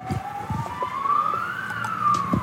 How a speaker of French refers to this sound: il y a les sirènes de la police qui viennent euh, nous arrêter